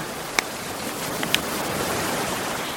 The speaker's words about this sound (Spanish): Un viento helado y repentino agitó las olas. El cielo, entinado de negro, se desgarró con relámpagos amenazantes y una terrible borrasca sorprendió a la nave desprevenida.